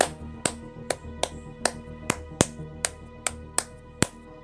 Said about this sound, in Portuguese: Eu me aproximo da porta e pergunto se a gente pode entrar. Quando, quando você chega perto, para, tá ligado? As palmas param.